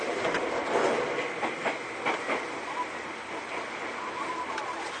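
A Seibu old 2000 series electric train runs steadily between Seibu-Shinjuku and Hon-Kawagoe with a broad, continuous rumble and hiss, broken by repeated sharp clicks and clacks of wheels over rail joints, with no talking.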